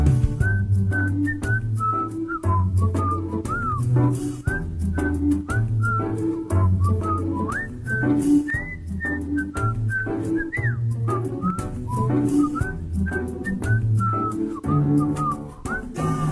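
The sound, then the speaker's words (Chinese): A bright, clear whistled melody runs through the whole clip, skipping between notes in a bouncy rhythm over steady accompaniment of bass and percussion, with no talking. “哼，一段口哨，看蚂蚁慢慢爬。”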